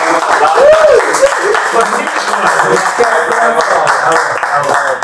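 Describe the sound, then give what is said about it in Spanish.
A crowd applauds steadily for about five seconds, a dense, loud wash of many hands clapping, with voices calling out and chattering underneath. “Demos un aplauso.”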